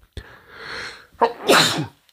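A loud sneeze: a sharp intake and buildup followed by a bright, explosive burst of breath, standing alone without any talking.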